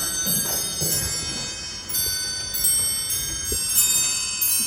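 household object, old clock ticking

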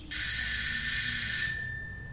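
household object, doorbell ringing

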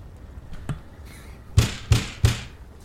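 impact, knocking on a door

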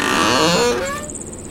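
household object, door creaking open

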